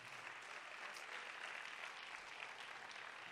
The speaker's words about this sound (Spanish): Si tú lo crees, dale un aplauso fuerte al Señor.